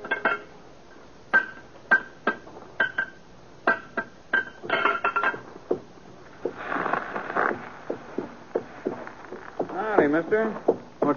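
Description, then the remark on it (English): A horse's hooves clip-clop in an even walking rhythm, each step with a slight metallic ring, for about a dozen steps before voices and other noises take over; the horse has a loose, split shoe and is being taken to a blacksmith shop. “Well, the horse is losing a shoe here.”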